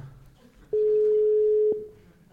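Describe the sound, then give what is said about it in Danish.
A single steady beep of a phone's ringing tone, about one second long, loud and clear against faint background hiss, with no one speaking. “Der er lige et telefonopkald, hva'?”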